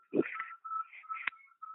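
A kitten gives a string of thin, high-pitched mews, several short cries running together over a couple of seconds, fairly quiet, with no one talking.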